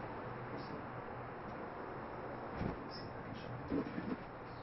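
Continuous roar of street traffic drifting in through an open window, a dense steady wash of low rumble and hiss, with a couple of brief louder surges as vehicles pass.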